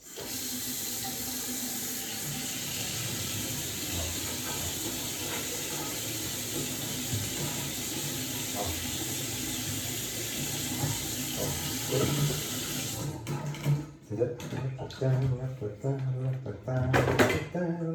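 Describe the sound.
A kitchen tap runs in a steady rushing stream for about thirteen seconds, then shuts off, leaving a few soft clinks and a voice speaking.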